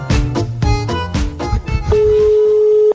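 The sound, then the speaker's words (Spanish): A short electronic melody of quick, bright notes gives way to a steady, unbroken tone, as a mobile phone call is placed live on air and rings out. No one speaks. “voy a llamar a Kioto en vivo a ver dónde carajo está”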